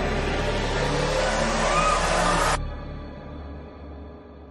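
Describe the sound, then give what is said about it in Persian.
An ambulance engine revs loudly as it pulls away carrying a patient on a stretcher toward the hospital, then cuts abruptly to a faint low rumble that lingers. No siren and no voices are heard. “سپس فریبا را با برانکارت در حالی که دست و پایش را میبستند همراه بیبی بی سوار ماشین اورژانس کرده و به سمت بیمارستان راهی شد.”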